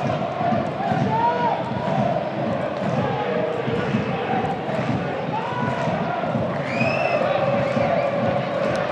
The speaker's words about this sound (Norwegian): Ja, hører det er liv på eh, Sparebanken Sør Arena. Det er ikke all verdens, men det er litt.